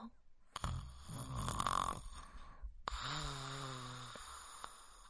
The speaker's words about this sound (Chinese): 呼呼呼！念着念着，青蛙哥哥竟然打起了呼噜。